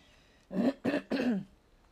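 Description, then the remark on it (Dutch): A person coughs three quick times in a row, turning away from the microphone. The coughs are throaty and rasping, with a short throat-clearing quality, each burst separated by a brief pause in otherwise quiet surroundings. “En ehm, sorry, ik moet af en toe een beetje hoesten.”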